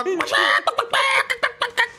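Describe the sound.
A voice imitates an angry rooster being put into an evidence bag, letting out a long strained squawk followed by a string of shorter, choppy squawks and clucks, loud.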